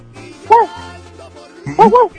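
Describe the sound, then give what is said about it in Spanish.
A radio contest caller imitates a dog barking with their voice, answering how a dog sounds: one short woof, a pause, then two quick woofs close together, loud, over a faint background murmur. “¿Cómo hace un perro?”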